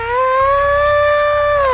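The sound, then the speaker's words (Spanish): A loud, steady siren tone sounds alone for under two seconds, signaling the start of a timed game. It rises briefly at the start and dips at the end, with bright harmonics layered above a strong fundamental. “Así que ahora, en cuanto, en, cuanto escuches la sirena, empieza el tomate, ¿de acuerdo?”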